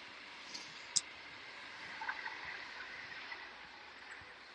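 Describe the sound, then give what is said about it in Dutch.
A train passes, a steady broad rushing roar with a few faint metallic clicks and ticks riding on top. No one speaks. “er komt nu een trein aan.”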